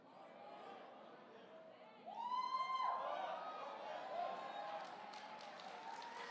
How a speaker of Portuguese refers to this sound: Demorou, mas aplaudiram.